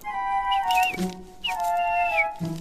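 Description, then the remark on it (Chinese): A small bird tangled in electrical wires, looking nearly starved, chirps in two squeaky, high-pitched bursts with rising and falling notes. The chirps are fairly loud, with soft low thumps between them and no talking. “是一只小鸟”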